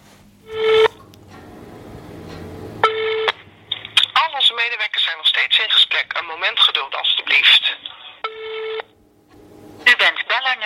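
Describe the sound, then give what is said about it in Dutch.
A recorded telephone hold message on the Dutch WMO transport service line: a thin, band-limited automated voice says in Dutch that the caller is number 5 in the queue and asks them to stay on the line, bracketed by short, bright electronic tone bursts before and after the announcement. “nummer 5 in de wachtrij. Blijf alstublieft aan de lijn.”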